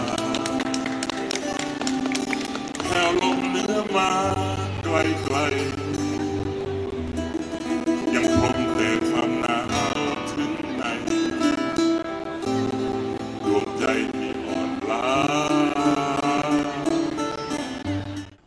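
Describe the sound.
A sung song plays throughout, a voice carrying a slow, wavering melody over full instrumental backing with a steady low bass line, loud and continuous with no speaking over it.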